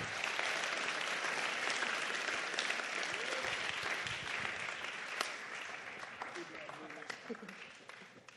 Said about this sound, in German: Und wir geben unseren Freiwilligen einen Applaus. Vielen Dank.